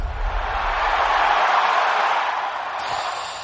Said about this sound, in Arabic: كابتن فؤاد رجعناك كذا للمدرجات شوي بصوت الجماهير ها اي أيوة والله صوت الجماهير دائما اصلا في اذني صوت الجماهير